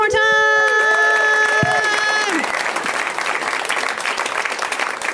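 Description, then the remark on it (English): An audience bursts into steady, loud applause for comedian Eddie Giuseppe at the end of his set, a dense crackle of many hands clapping. A held, wavering musical tone rings over it at first, then the clapping carries on alone. “Eddie Giuseppe, everybody, let him hear one.”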